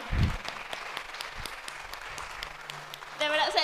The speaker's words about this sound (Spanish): Y de verdad yo quiero que le des un aplauso a nuestros coordinadores porque de verdad se han esforzado por, porque esto...